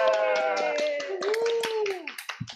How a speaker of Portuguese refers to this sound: Aê, palmas, alegria!